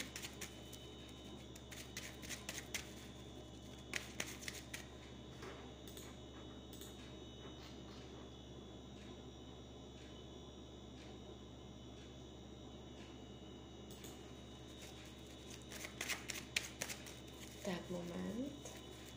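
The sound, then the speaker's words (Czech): Riffling and shuffling of a deck of cards in several short bursts, at the start, around four seconds, and again near the end, over a steady low background hum. “Tak, moment, už míchám karty, sleduju fotky.”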